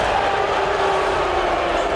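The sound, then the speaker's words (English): A crowd of fans boos a college basketball star steadily for the full two seconds, a dense, continuous low drone of many voices with no breaks and no clear individual speech. “We've heard the booing from the crowd here.”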